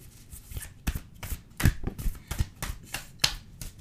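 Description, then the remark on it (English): A deck of cards being shuffled before two cards are picked, a series of crisp riffling snaps and soft flutters repeating in quick bursts over a few seconds, with no voices. “I'm going to shuffle. I'm going to pick two cards and I want you to think about it.”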